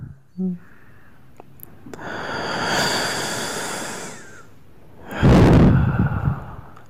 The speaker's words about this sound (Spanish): Tiene problemas de respiración este güey. necesita un otorrinolaringólogo, pero cabrón.